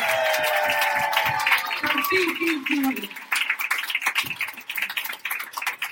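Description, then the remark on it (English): An audience gives a round of applause for an audience member who travelled from Dubai, a dense, steady patter of many hands clapping for six seconds, mixed with cheering voices and whoops early on, easing slightly partway through. “Let's all give her a round of applause.”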